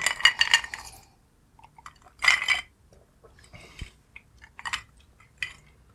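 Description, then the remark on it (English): Glasses clink together in a toast: a bright ringing burst, then a second clink a moment later, followed by quiet sipping and small glassy taps. “All right, cheers. Cheers. cheers.”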